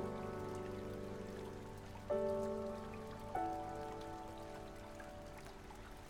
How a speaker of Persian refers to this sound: در ذهنتون اکنون خودتون رو توی وضعیت طوفانی بارونی تصور کنید